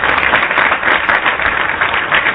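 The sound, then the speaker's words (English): A live audience at the Hushmo Black Forum show applauds steadily, a dense, continuous wash of many hands clapping at once, fairly loud, with no voices rising above it. “Hey, got a live, lively crowd here tonight, yo.”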